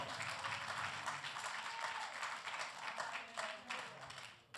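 A large crowd applauds steadily for God, a dense wash of many hands clapping at once that holds at an even level from start to finish, with faint voices mixed underneath.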